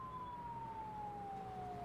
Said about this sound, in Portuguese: Você escuta sirenes rondando ao seu redor, procurando vestígios de Inara.